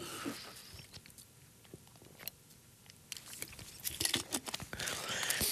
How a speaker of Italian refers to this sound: Scusate, bevo un goccio d'acqua.